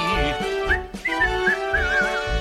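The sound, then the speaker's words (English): Someone whistles a short, wavering melody in high, trilling notes, steady, over a dense, sustained tonal background. “That was me whistling.”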